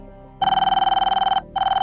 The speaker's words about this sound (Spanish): El teléfono sonó